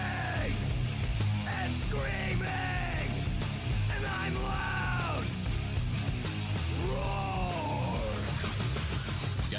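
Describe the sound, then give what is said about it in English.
A man yells in harsh, strained bursts, heavy-metal style like early 90s heavy metal, several sustained wavering shouts in a row over a loud, dense low rumble, forceful throughout. “Like early 90s heavy metal hard. I'm yelling!”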